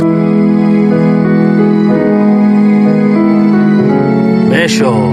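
Three layered symphonic string tracks play together: a sustained bed of lower strings with violins or violas playing an added arrangement over it, harmonically rich and loud, with no voices.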